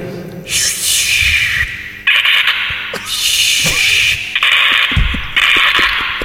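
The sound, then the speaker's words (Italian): A voice imitates an approaching dolphin with a run of loud, breathy, whistling squeals, about five sustained bursts in close succession, without any spoken words. “Oppure il delfino che arriva.”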